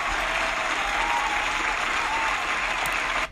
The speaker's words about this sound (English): We gotta give ourselves a round of applause, bitch. I know the round of applause is delayed. Don't judge me. I'm not good at this sound effect shit.